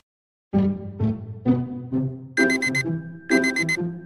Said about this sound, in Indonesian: Eh, eh, alarm lo bunyi tuh Alarm? Oh iya, udah hari Sabtu